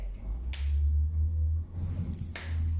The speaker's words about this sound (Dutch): Ja, sorry, je hoort ons klappen dat is een fruitvliegje. Heel irritant.